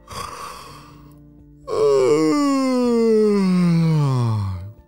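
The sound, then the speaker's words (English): A voice imitates a rabbit's big, drawn-out waking yawn: a soft breathy intake, then a loud, long voiced exhale that slides steadily down in pitch and fades out, with nothing else around it. “Have you ever seen a rabbit yawn before?”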